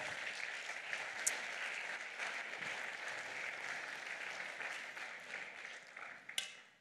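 An audience applauds steadily, a dense wash of many hands clapping at an even level for several seconds, with a couple of sharper claps standing out before it tapers near the end.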